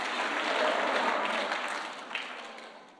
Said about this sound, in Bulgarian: О, хайде, ръкопляска, ако вярваш в това.